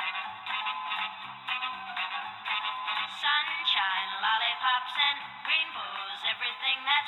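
A 1960s pop song plays steadily throughout, with a bright, tinny, lo-fi sound like an old recording, and a melodic lead voice gliding over a busy backing.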